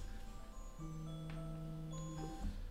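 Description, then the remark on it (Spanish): A phone alarm rings with a sustained electronic tone, a steady low note layered with higher chiming pitches and a few sharp clicks, fairly loud and with no one talking. “Y, uy, esperen que me está sonando una alarma.”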